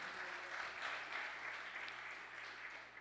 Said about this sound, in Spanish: Del otro aplauso fuerte a papá.